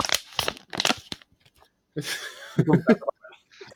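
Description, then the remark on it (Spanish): A cold beer gets opened: a few sharp crinkling cracks, then a short burst of fizzy hiss, followed by brief chuckling voices. “Salud, que acabo de abrir una fría. Y me No. Anyway. Este. Déjame abrir la mía aquí.”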